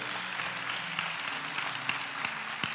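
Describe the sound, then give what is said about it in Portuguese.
An audience at a church service applauds steadily, a dense wash of many hands clapping at an even level, with a few sharper claps standing out and a faint low tone humming underneath. “Só quem recebe, aplauda ele bem forte, toda a tua vida.”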